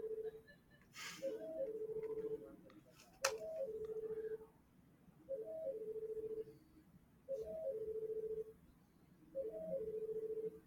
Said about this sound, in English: why is the phone ringing?